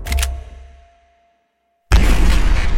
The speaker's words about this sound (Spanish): Se escucha el sonido del disparo, seco, estridente, la bala es expansiva, de punta de plomo.